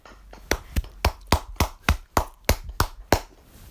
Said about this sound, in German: Müssen wir einmal ganz kurz klatschen.